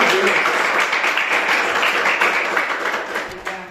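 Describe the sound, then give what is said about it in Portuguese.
An audience applauds in a steady, dense wash of clapping that stays loud throughout and thins slightly toward the end, with faint voices mixed in. “Eu agradeço a oportunidade e as palmas que louvam o Amém, graças”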